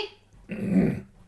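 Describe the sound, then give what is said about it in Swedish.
A troublesome dog named Dixie growls in the background in a low, rumbling burst lasting about half a second, moderately loud, after a brief quieter moment with no talking. “Verkligheten ser ut att ibland har man en mm. jobbig hund i bakgrunden.”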